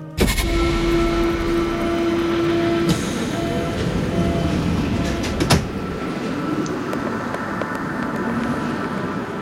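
A commuter train idles at a station platform with a steady low rumble and a sustained tonal hum, broken by a sharp clank midway, all under continuous ambient station noise.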